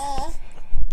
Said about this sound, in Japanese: えー、子供の声が入っているかと思いますが、一緒に進めていきたいと思います。